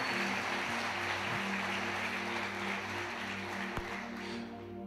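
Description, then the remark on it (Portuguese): An audience claps steadily for about five seconds in praise of the Lord, a dense, even wash of applause with a low electrical hum underneath and no one speaking. “E eu queria que você aplaudisse o Senhor pela vida da Carla e da irmã Ivone.”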